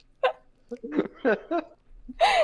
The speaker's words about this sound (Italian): Era uno starnuto di assenso